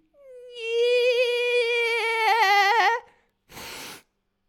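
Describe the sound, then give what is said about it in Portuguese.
A voice imitates a mosquito with a steady, thin, whiny hum held for about three seconds, wavering toward the end, followed by a short breathy burst. “Mas imagina seres tipo um mosquito e, a, e, é, e é a tua vozinha que faz isto.”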